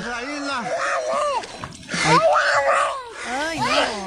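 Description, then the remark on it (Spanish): A child cries loudly in repeated wailing bursts as a family tries to cross a river into the United States. Its voice rises and falls, with short gasping pauses between sobs and faint background noise underneath. “donde está una familia tratando de cruzar por el río para los Estados Unidos, donde viene un niño, está llorando el niño”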